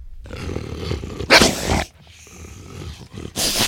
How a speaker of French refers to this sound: Il se retrouve alors devant une meute de loups. Leurs babines sont retroussées, ils grognent, ils sont menaçants.